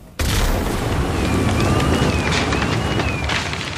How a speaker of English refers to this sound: They can literally uh, be like an explosion and lift roofs up and blow walls down this sounds like one of those things that you would you would see in a movie and you think it might just be Hollywood.